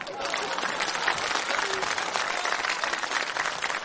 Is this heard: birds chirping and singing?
no